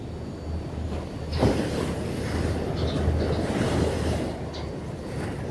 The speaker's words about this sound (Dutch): En luister maar naar het ruisen van de zee.